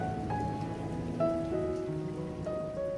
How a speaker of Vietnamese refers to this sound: Phố đón tôi bằng một cơn mưa bất chợt.